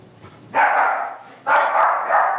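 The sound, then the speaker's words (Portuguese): A dog barks twice at nothing, toward a wall, each bark loud and drawn out, with the second following right after the first and no one speaking. “Bia tá latindo pra, pra, pra nada ali”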